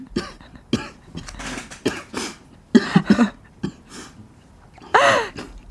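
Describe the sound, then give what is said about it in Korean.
A person coughs repeatedly in a run of sharp bursts, several in quick succession, with a louder harsher cough near the end and brief breathy pauses between. “네, 우리 크게 기침해요. 그래야 괜찮아질 것 같아.”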